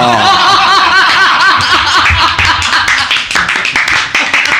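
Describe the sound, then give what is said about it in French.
A crowd laughs loudly, then breaks into a dense round of applause with rapid overlapping claps that continue to the end, the laughter fading beneath the clapping. “Non, mais ce qui est, horrible, c'est pas que ça, c'est qu'ils applaudissent en fait, c'est ça le truc.”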